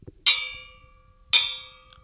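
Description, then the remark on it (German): Two clear strikes on the side of an old metal bedpan, about a second apart, each ringing out with a bright, bell-like metallic tone that fades slowly. No voices. “Und seitlich bespielt.”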